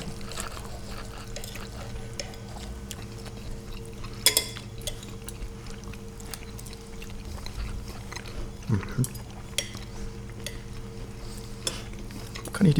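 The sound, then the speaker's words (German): Scattered sharp clinks of forks against plates as people eat Spätzle with caraway onions, a handful of brief taps spread out over a steady low hum, with soft chewing sounds in between. “Schmatzen ja. ist erwünscht und gehört zum Podcast. Auch wenn mit, mit der Gabel schmeißen.”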